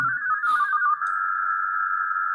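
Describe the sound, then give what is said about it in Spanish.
A WhatsApp message notification tone from a phone: a bright electronic tone that wavers briefly, then holds one steady pitch for about two seconds, clear, with no talking. “Esto es un mensaje WhatsApp.”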